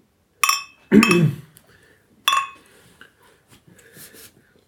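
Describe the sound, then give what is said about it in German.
Two bright glassy clinks ring out a couple of seconds apart, glasses or bottles touching in a toast, with a bottle set down on a table, a duller thump and quiet rustling between them. “also man hört ja schon, wenn man die Flasche hier auf den Tisch stellt, total ja. laut im Mikrofon, was da so ist.”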